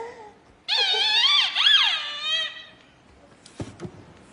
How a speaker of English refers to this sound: Maybe there's something special about the blue balls. Maybe only the blue balls squeak.